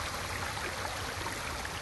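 The Azusa River in Kamikochi, Nagano Prefecture, Japan, murmurs steadily in the evening among autumn-coloured larches, a continuous soft rushing and babbling of water, with no voices or other sounds breaking through.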